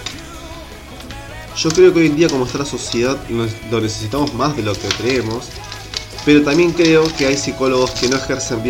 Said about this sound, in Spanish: perdón el ruido, no estoy agarrando los papeles que tengo acá.